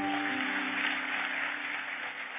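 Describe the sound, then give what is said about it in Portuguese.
A crowd claps steadily and densely to applaud the Lord, a continuous wash of many hands filling the whole moment at an even, fairly loud level, with a faint low tone beneath. “Vamos aplaudir o Senhor por aí.”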